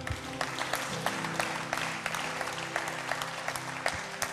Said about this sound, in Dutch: Laten we Jezus een groot applaus geven.